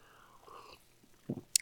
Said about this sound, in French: Mais avant de commencer, permettez-moi de prendre une gorgée d'eau dans ma belle tasse.